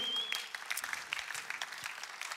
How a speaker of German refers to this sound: Gib einen Applaus dir selber.